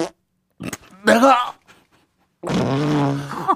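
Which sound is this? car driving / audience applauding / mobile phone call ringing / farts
farts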